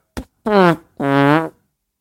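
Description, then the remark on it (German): A voice imitates farting: a short click, then two loud, buzzy, pitched blasts in quick succession, the second longer and slightly higher, with nothing else underneath. “Stufe 1, Furz. Stufe 2,”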